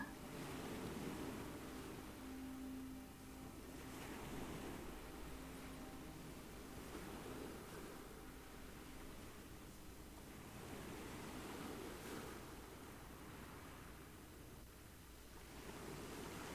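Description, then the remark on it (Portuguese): Sea waves wash steadily onto a shore in soft, broad rushes that swell and recede every few seconds, a continuous surf wash with no voices. “Como as ondas do mar você pode senti-lo respirar também dentro de você.”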